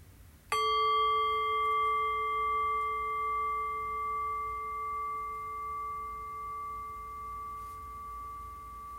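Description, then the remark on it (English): A single meditation bell struck once, a sharp onset followed by a long, sustained resonant ring with clear steady overtones that slowly fades over several seconds, with no talking. “ringing the bell.”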